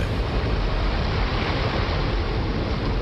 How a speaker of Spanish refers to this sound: Y mientras lo hacía, el niño escuchó un fuerte estruendo el agua del río irrumpió a través del dique hacia la pequeña villa.